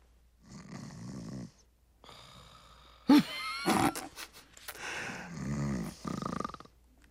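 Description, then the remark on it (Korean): An elderly woman dozing off with her chin propped on her hand during a class in a quiet classroom snores in slow, rumbling breaths, about three long snores, with a sharp snorting burst in the middle. The snoring is fairly loud, with no talking. “턱을 괴고 곰곰이 생각하시는 줄 알았던 할머니는 그 사이 졸고 계셨던 거죠.”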